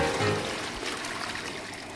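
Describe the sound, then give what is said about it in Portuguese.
A toilet flush: a steady, fairly loud rush of pouring water filling the whole moment, with no voices. “Está começando o podcast Descarga. Ouve aí.”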